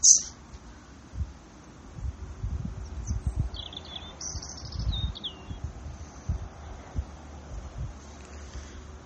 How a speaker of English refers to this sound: Maybe where I am in the garden, listening to the birds